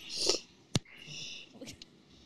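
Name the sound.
cat purring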